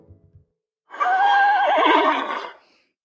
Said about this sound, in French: À 5 heures du matin, le hennissement de quatre chevaux qui attendaient sous ma fenêtre me réveilla.